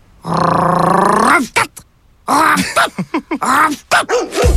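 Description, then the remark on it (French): A dog vocalizes: a long drawn-out howling whine, then a quick run of short, arching barks and yelps that sound almost like talking. “J'ai rêvé que le chien parlait. Ben voyons. Puis qu'est-ce qu'il disait?”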